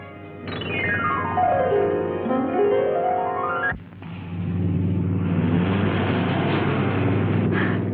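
The engine of a helicopter shaped like a motor car whines as its pitch sweeps down and then climbs back up, followed by a loud, steady mechanical roar that runs continuous without any voices.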